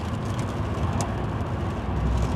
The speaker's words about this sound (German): Und ich melde mich von der Autobahn A4 in Polen, in Schlesien. Und äh, bin, auf dem, bin auf dem Rückweg nach Deutschland. Es regnet, leicht, Temperatur so um, um die 8 Grad.